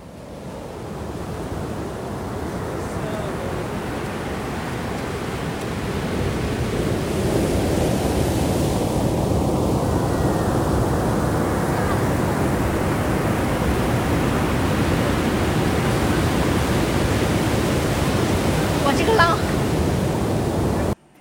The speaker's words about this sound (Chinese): 拍完照呢，你还可以选择直接在酒店的这个沙沙滩上面，对，去听海的声音。 哇， 对，然后我有录那个呃特别大声的夜海的声音，带大家一起听一下，对。